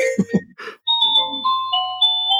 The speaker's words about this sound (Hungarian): Csengő, csengő, ajtónál. Jaj, ez a csengő.